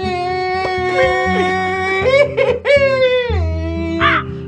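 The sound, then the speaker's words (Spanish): A person imitates a crow with loud, drawn-out cawing squawks that rise and fall in pitch over a steady low background hum. “el cuervo”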